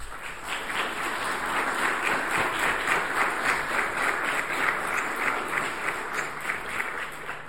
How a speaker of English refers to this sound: But I think in the most Presbyterian appropriate way, I think our choir and our musicians deserve a round of applause for how led us in worship this morning.